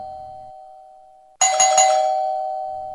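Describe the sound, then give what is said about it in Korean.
A doorbell rings out with a bright electronic chime as a visitor arrives at the front door, a couple of quick clustered tones followed by a lingering ring, after a steady faint hum. No one speaks. “아, 다이아 잠깐만 누가 오셨나? 누구세요?”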